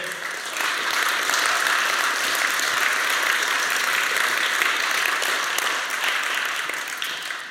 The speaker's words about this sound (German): Äh, vielleicht könnt ihr unserem Stage Design Team mal einen mega Applaus geben